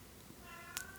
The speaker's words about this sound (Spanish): además de que mi gato está maullando para salir,